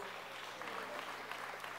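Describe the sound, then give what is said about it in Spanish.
A standing crowd applauds the team at the end of a talk, a dense steady patter of many hands clapping at once, fairly soft and even throughout, with no voices over it. “Sé que son inexpertos, pero vamos a darle un aplauso a todos ellos.”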